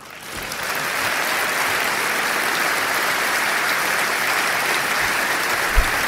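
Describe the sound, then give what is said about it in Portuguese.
A large crowd applauds Paulo Portas during a political speech, a dense, even roar of clapping that swells in within the first second and holds without letup, with no voices standing out. “Muito, muito aplaudido a Paulo Portas neste momento do discurso.”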